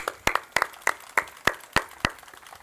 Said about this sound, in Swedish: Och i all solidaritet så tycker jag att vi tackar väl ändå Panama för showen med en applåd.